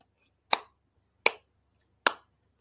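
Three sharp, isolated claps land at a slow, steady pace, each a crisp smack with a brief decay and silence between. No one speaks.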